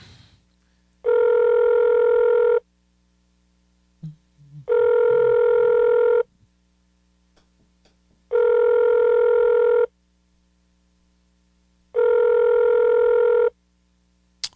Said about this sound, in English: Hold on, y'all. Got to make a quick phone call. Just a second.